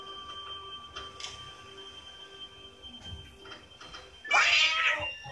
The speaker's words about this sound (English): Oh. Jump scare cat. Gotta love it. now, I wonder if that scared anybody in the theater.